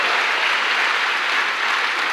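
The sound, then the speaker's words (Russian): A crowd applauds Jesus steadily, a dense wash of many hands clapping at once, sustained and fairly loud throughout with no voices standing out. “Давай дадим Иисусу аплодисменты, потому что мы праведники.”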